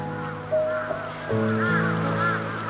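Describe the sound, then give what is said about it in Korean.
A flock of crows circling in the sky at dusk, waiting their turn to return to their nests, calls out together, many overlapping cries blending into a steady, busy chorus that swells midway and carries on without a pause, with no one talking. “까마귀들이 저렇게 빙빙 도는 건 둥지로 찾아들 순서를 기다리는 거예요.”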